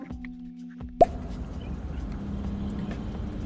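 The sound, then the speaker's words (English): A single sharp, bright pop of a bubble being popped, cutting off a low steady hum and followed by a dull continuous rumble. No one speaks. “Let's go ahead and pop some bubbles.”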